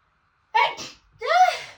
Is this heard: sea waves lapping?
no